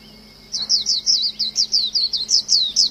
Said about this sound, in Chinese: 这个有点难，我不知道，我不确定上海有没有这个鸟，它叫绿袖眼，有吗？